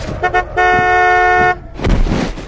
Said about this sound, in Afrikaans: Pad is nat. Die motor gly. Of het jy dalk die draai net te vinnig en te wyd gevat? 'n Dowwe slag.